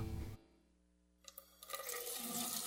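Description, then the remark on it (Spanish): After a brief hush, a tap is turned on: a few sputtering bursts give way to a steady rush of running water that continues to the end, with no one speaking. “Miles de dominicanos desperdician el agua de manera irresponsable, sin entender el impacto que causaría en nuestras vidas si desaparece.”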